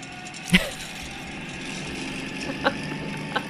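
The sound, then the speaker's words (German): A small Citroën 2CV car engine runs steadily with a low, droning hum, punctuated by a few brief clicks and a light mechanical rattle as it shifts gears, no voices present. “Ja, so klingt Ente, äh, wenn man... Da, jetzt wird geschaltet. Und dann hört man so ein kleines Rasseln.”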